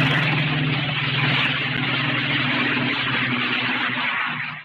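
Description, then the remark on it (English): A Spitfire's Merlin aircraft engine runs steadily and loudly, a deep rumbling drone with a broad roar that holds constant for several seconds before cutting off abruptly. “I think it had a three cylinder engine in it, but when you stood next to a real Spitfire and heard her real Merlin engine, it purrs like a kitten.”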